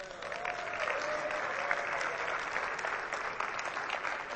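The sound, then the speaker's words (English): A crowd applauds the fathers on Father's Day. It is a steady, dense, even patter of many hands clapping at a constant moderate loudness, with a faint whistle-like tone briefly rising above it early on. “How about a round of applause for all of our fathers?”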